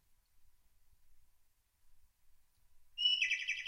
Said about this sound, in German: wartet jetzt mal, jetzt müsste das Zwitschern kommen, hört, achtet mal drauf. Wenn das Zwitschern kommt, dann wissen wir, okay, der Audiowächter arbeitet.